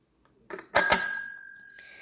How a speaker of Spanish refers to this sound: Hoy toqué el timbre porque el retorno es breve